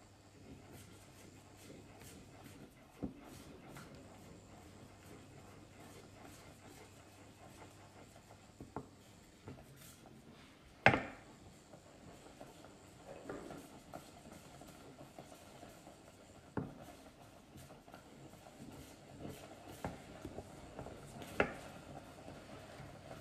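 Porridge simmering in a pot: a steady low bubbling rumble with occasional sharp pops and blips scattered through, with no one speaking.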